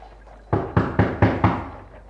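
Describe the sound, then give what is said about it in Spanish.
Five firm knocks on the door of Candiola's house in a quick, even rhythm, each one sharp and fairly loud with a short ring afterward, then quiet. No voices accompany them. “¿Quién llama ahí abajo? Abran la puerta.”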